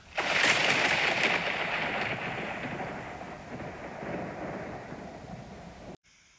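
A sharp, loud thunderclap bursts in, then rolls into a long, heavy rumble that slowly fades over several seconds before cutting off abruptly. No voices are heard.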